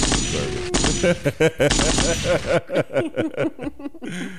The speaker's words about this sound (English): Yep, gunshots.